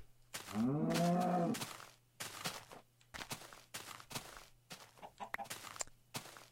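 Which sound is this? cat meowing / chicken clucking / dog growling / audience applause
chicken clucking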